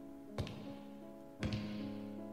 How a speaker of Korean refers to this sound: 병원 복도 등 병원 내부에서 이동 중일 때 당신의 뒤쪽 또는 앞쪽 저편에서 구두 소리가 들린다면 즉시 밝은 곳이나 다른 직원들이 있는 곳으로 최대한 빠르게 이동하십시오.